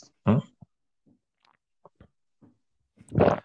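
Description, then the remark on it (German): Two loud gulping swallows from two people drinking together close to a microphone, one near the start and one at the end, with a few small wet clicks and faint mouth noises between them and no talking. “Ja, ich habe auch äh, sehr lange dafür geübt, laut zu schlucken.”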